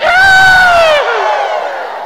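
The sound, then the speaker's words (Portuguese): A crowd at an event lets out a loud, sustained Ceará-style boo in unison against the pension reform (reforma da Previdência), its pitch sliding slightly downward for about a second before dissolving into a rougher, breathier jeer that trails off. “Eu quero puxar, depois do um, dois, três, meses já, uma vaia cearense para essa reforma da Previdência.”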